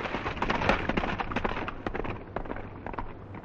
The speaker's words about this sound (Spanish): Un coche fúnebre con un ataúd y tirado por dos caballos negros cruza el puente y se aleja del castillo.